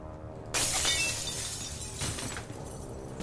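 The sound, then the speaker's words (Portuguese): A sudden loud crash of shattering and breaking objects as equipment is punched, thrown and smashed violently in a fit of rage, followed by scattered clattering debris and a second smash, chaotic, with no voices. “Ela começa a socar tudo ali, quebrando tudo que ela vê e as coisas começam a ser arremessadas e quebradas ali de uma forma violenta.”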